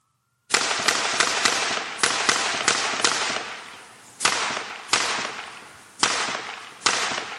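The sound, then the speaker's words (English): A loud volley of gunshots fired into a man, a dozen or so sharp cracks fired in quick succession and then at a slower, uneven pace, each ringing out with a reverberant tail. No one speaks. “So that was a volley of shots sent uh, into a fellow that I would argue deserved it.”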